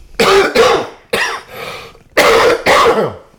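A loud coughing fit: about six harsh, raspy coughs coming in quick pairs with short gaps between, and no talking, caused by a bit of a snack going down the throat.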